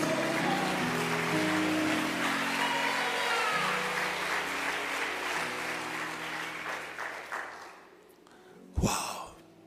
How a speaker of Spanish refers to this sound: Aplauda si quiere.